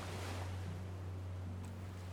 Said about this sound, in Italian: Aveva nelle orecchie la risacca del mare, quando lentamente innaffia la terra scrollando dal torpore una voce senza senso.